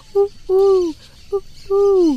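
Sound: pigeon cooing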